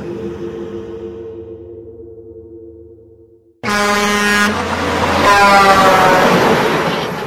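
A low, steady engine drone gives way to a sudden, very loud truck horn blaring, a sustained harsh blast that holds for several seconds, heard from an old Datsun parked at the roadside at almost 8:30 at night.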